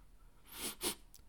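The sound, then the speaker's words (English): Two quick, breathy sniffs in a row, as if someone is drawing in air through the nose to catch a scent. No talking. “sniff, sniff. Whoa, what kind of good stuff is cooking in the kitchen today?”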